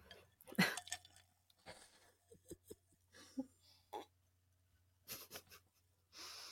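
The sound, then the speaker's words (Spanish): Someone takes a sip of a drink, with soft slurps, wet mouth clicks and swallows spread over several seconds, ending in a breathy exhale. “Permiso, ahorita un sorbito.”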